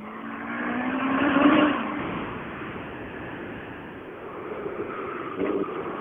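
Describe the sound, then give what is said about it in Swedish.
A Renault 19 rally car's engine revs and roars as it drives down a hill in a forest, rising to a loud peak with a sweeping pitch, then settling into a steady mechanical drone with a brief spike near the end. “Är det inte en Renault som kommer ner för backen? Renault 19.”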